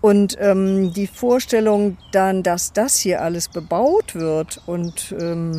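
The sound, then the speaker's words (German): A chorus of birds sings faintly in the background, steady high chirping running beneath a woman talking in the foreground throughout. “Man hört es auch im Hintergrund. Eine unglaubliche Vogel, ein Vogelkonzert.”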